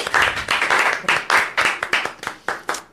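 Rapid, steady clapping of hands, about a dozen sharp slaps in three seconds with a fairly even rhythm, loud and crisp, with no voices.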